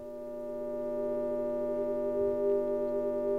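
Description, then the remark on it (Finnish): A steady electronic drone of layered, sustained tones, an audio file played from a phone through a small, thin-sounding speaker, holding nearly unchanged and swelling slightly louder after the first second, with no voices. “Jussin lähettämän äänitiedoston eli Serken kuuntelu, viides kuuntelu puhelimen ja pienen kaiuttimen avulla”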